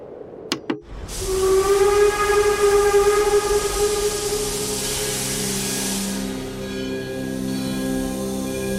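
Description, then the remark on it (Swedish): Two sharp clicks, then a loud, sustained steam train whistle with a steady harmonic tone over rushing hiss, holding for several seconds before the pitch shifts slightly and the hiss continues. “Ja, och nu till julexpressen.”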